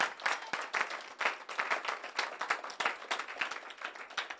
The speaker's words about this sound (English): So she is such a blessing because it means that the yeah, let's give her a bit of a clap.